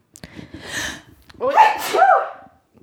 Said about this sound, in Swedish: Alltså jag skulle hosta då, jag skulle yeah. nysa.